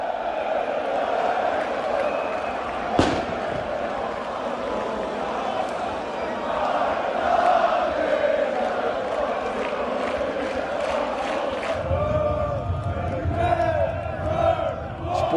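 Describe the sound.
A large crowd of Feyenoord football fans in Rotterdam roars and cheers continuously in the evening as the team bus returns after a 3-2 win, with shouting and chanting voices; a sharp bang cuts through early on, and the noise grows denser and heavier toward the end.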